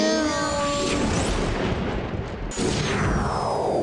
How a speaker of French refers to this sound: Bon allez, il me reste plus qu'à réinitialiser le tout en appuyant sur le bouton. Entendu, téléportation activée.